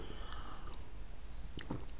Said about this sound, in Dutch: Een slokje water, sorry.